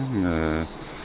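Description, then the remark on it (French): A short, steady buzzing hum of honeybees at the hive fanning their wings to ventilate it and dry the honey, rising slightly in pitch for about half a second before cutting off into quiet background. “C'est c'est un bruit de ventilation.”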